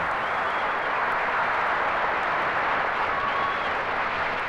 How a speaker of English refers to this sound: And the fake applause and the fake laughter.